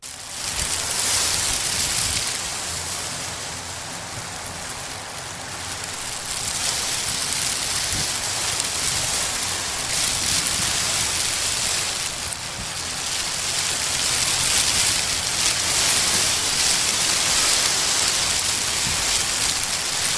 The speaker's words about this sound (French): Comme dans cette œuvre de 2010, constituée de 30 000 sacs plastiques accrochés au mur d'une salle d'exposition et de 16 ventilateurs. La mer, vous dis-je.